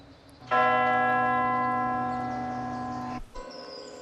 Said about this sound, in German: Who pulls the town hall bell rope but blind Captain Cat?